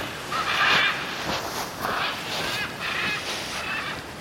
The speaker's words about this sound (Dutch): Maar deze ara's komen graag vlak bij zee. Want daar snoepen ze van de vlezige vruchten van de amandelbomen.